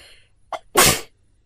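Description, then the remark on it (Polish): A single sharp, loud sneeze, preceded by a brief quick intake of breath, then a burst of noisy release that cuts off into quiet. “Czasami kichał, czasami miał alergię, czasami nie mógł trzymać w domu kota.”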